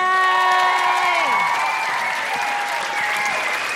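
A crowd claps steadily throughout, with cheering voices and drawn-out whoops rising above the dense clapping, loud and sustained for a few seconds.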